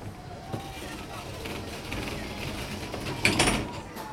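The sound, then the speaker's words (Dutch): A sliding door of a pagoda ride gondola at Europa-Park rumbles along its track and closes with a clunk near the end, amid mechanical whirring and a steady machine hum inside the enclosed cabin, which is waiting to go up. “De deur is dicht.”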